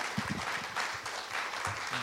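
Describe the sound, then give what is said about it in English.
A crowd applauds steadily at the Austin Film Festival, a dense wash of many hands clapping at moderate loudness, sustained throughout with a few faint low voices murmuring beneath. “Please give them all a round of applause.”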